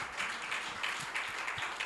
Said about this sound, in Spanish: ¿Cuántos pueden decir amén? ¿Cuántos pueden glorificar a Dios? ¿Cuántos pueden darle un gran aplauso al Rey de Reyes, al Señor de Señores?